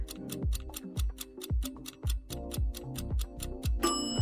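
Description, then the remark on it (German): A microwave timer ticks steadily about twice a second, each tick with a soft low thump, then a bright electronic beep sounds at the very end and is cut off. “Die Mikrowelle hat gepiept.”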